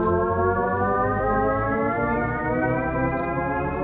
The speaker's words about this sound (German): Ab sofort müssen nämlich Elektroautos aus Sicherheitsgründen auch beim langsamen Fahren zu hören sein.